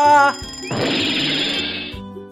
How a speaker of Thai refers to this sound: เสียงนาฬิกาถูกคว้างลงบนพื้นอีกตามเคย นาฬิกาอุลตร้าแมนจุกจนต้องเงียบเสียงลงในที่สุด